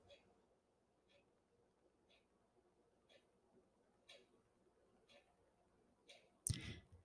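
A clock ticks steadily in a quiet kitchen, one soft tick about every second over a low background hum, followed near the end by a brief, louder knock.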